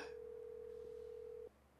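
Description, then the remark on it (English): A phone ringback tone sounds as a single steady electronic hum for about a second and a half, then cuts off to quiet line noise. No one speaks. “i have been ringing you, bro.”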